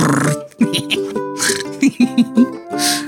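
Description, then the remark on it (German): A voice mimics squeaky, sputtering farts on a glass pane, a quick run of short buzzing and squealing bursts mixed with breathy noise, loud. “Eine von uns hat die Theorie, dass man sicherlich gut auf einer Glasscheibe pupsen konnte. Das Geräusch.”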